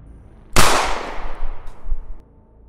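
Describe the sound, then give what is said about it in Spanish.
A single loud gunshot cracks out sharply, its bright blast decaying over a second or two into a rumbling echo, with no voices present. “La primera, disparaste a cualquier parte también”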